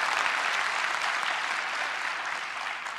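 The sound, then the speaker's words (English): Steady applause from audience members whose team won fills the whole three seconds, a dense, even wash of many hands clapping at once, loud and sustained with no voices standing out. “Did, if your team won, clap. If, if your team lost, just boo.”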